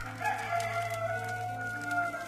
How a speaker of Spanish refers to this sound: Pero Pedro dijo, Hombre, no sé de qué hablas. Inmediatamente, mientras aún hablaba, el gallo cantó.